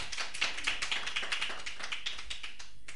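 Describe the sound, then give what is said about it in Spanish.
A small studio audience claps hands in a quick, rhythmic pattern while dancing, the sharp overlapping claps steady, with no talking over them. “Bueno, en un momento aquí está el estudio dando palmas y bailando. Un aplauso.”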